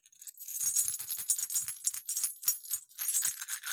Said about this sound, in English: Okay, before I roll, I just wanted to grace the audience with some dice ASMR. Okay. Are you ready? Are you ready? Sure.